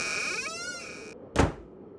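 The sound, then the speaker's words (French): A wooden stable door creaks open slowly with a drawn-out, wavering squeal lasting about a second, then a short dull thud as it stops. Fairly quiet, with no voices. “La porte de l'étable a grincé lentement.”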